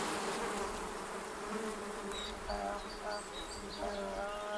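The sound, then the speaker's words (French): A dense, continuous buzzing of thousands of flies swarming through a house, a steady droning hum with faint higher whines weaving through it, no voices present. “Et avec ça, des odeurs insupportables et des mouches, des colonies de mouches qui par milliers envahirent la coquette maison.”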